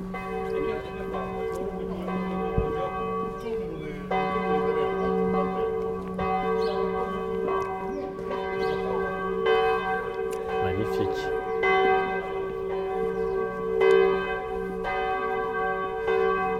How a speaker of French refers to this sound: les cloches qui nous accueillent pour entrer dans l'église. Oui, c'est très sympathique. Hein? Accueil personnalisé.